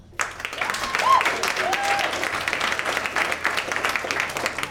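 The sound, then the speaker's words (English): The audience at the comedy show Stand Up on the Spot bursts into applause when asked who has never seen the show before, a dense wash of clapping that starts abruptly and holds steady for several seconds, with a few scattered cheers and whoops mixed in. “I am your host, …, and by round of applause, who has never seen Stand Up on the Spot before?”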